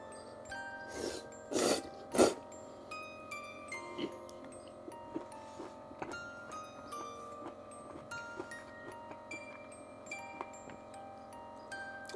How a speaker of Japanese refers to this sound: 咀嚼音結構入ってますか